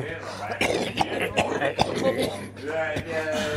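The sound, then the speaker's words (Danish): Several short, sharp coughs burst out in an irregular run, mixed with breathy, voiced sounds that edge toward laughter. “Du skal hoste ned i ærmet”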